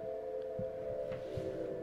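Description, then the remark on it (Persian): A steady, droning whale call holds a mid-pitched moan throughout, with a couple of soft low thumps beneath it and no voices present. “نهنگا معمولا برای پیدا کردن جفت یا ارتباط با بقیه نهنگا صدا از خودشون تولید میکنن که تا کیلومترها شنیده میشه”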